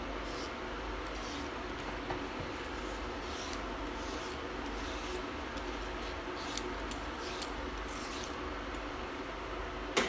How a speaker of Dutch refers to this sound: Dan ga ik nu met de dunschiller de wortels schillen.